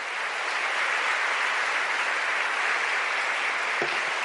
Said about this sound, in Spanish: Démosle ese aplauso fuerte al que vive. Increíble, es muy lindo esto.